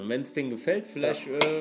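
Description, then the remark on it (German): Two cups clink together a few times with bright, ringing taps while a man keeps talking over them. “Was ihr gerade gehört habt, ist, der Adi, der hat gerade mal die zwei Becher.”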